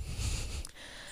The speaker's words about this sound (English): Sorry, guys, that's the dog.